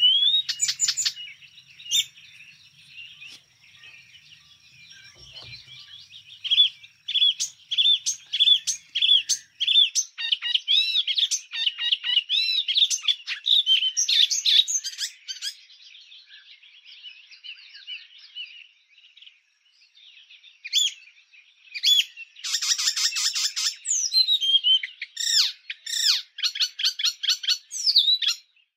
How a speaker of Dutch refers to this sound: Ik denk dat we heel veel ehm, Afrika horen in de zang van de spotvogel.